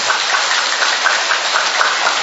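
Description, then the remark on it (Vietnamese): An audience breaks into loud, sustained applause, a dense crackle of many hands clapping steadily throughout with no voices audible. “Một tràng pháo tay thật to thưa anh chị em.”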